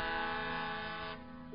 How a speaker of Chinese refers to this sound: 突然，窗外再次传来了熟悉的轮船的汽笛。